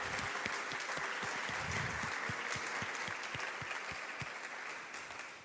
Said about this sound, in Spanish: ¿Cuántos le dan un fuerte aplauso?